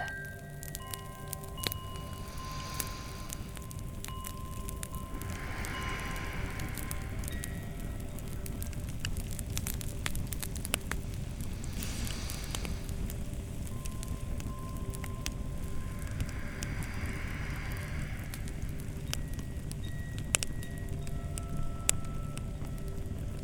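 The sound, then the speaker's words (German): A wood fire of logs crackles steadily in a tiled stove, with irregular pops and snaps over a soft continuous roar of flames, moderately loud throughout. “Ein scheuches Flämmli fängt im Ofen anzünden.”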